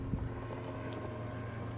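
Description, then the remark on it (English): A boat engine drones steadily as boaters pass by on the water, a low continuous rumble with a faint whine, mixed with some wind noise and no talking. “you can uh, you can hear the the boaters come past us, and we might break from the podcast to kind of say hi or let them let them pass.”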